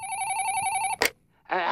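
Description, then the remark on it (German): A telephone rings with a steady electronic tone for about a second, then a sharp click cuts it off; after a short pause, a voice begins speaking. “Und, und oh, Telefon.”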